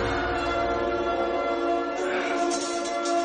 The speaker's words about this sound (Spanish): El sonido de las varas golpeando parecen alterar a Eddie.